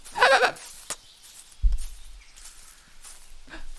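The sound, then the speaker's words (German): A goat gives one short, loud bleat at the start, followed by a soft thud and faint rustling in an otherwise quiet space. “Sei nicht traurig, Ziege.”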